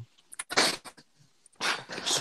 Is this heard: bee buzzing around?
no